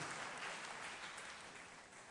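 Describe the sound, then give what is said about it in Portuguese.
An audience claps steadily for a pastor, a dense wash of many hands that carries on without a break and slowly eases off toward the end. No voices can be heard. “Vamos aplaudir, gente.”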